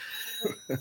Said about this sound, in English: Sorry about the phone ringing in the background.